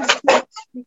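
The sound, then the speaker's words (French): Two quick clattering crashes of objects knocked down by a cat, followed by a couple of fainter, ringing knocks as things settle, with no voices. “frappé euh, fort, je dois dire, parce que d'habitude, ben voilà, bon, il a fait tomber des choses, je suis désolée.”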